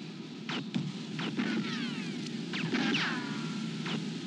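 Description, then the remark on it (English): A string of muffled gunshots, around eight sharp cracks in irregular bursts, over a steady background hiss and hum, with no one talking. “Listen now, here it comes. You can hear the shots.”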